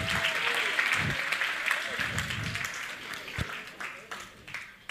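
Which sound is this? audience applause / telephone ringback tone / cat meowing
audience applause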